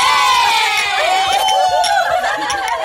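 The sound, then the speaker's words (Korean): A group of voices cheers and whoops together during a celebratory toast, loud and overlapping, with high excited shouts rising and falling for about three seconds, accompanied by scattered laughter and chatter. “오늘 같은 날은 100번도 더 해야 돼. 건배.”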